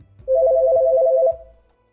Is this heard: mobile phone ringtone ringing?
yes